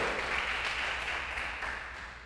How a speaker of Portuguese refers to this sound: Dá um aplauso ao Senhor aí então.